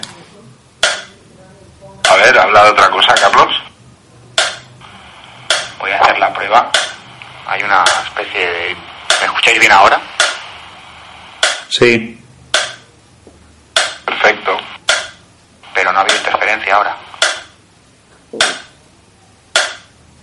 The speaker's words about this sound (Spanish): ¿Tuvo una interferencia? Sí. Pero la ha pasado las dos veces, ¿eh?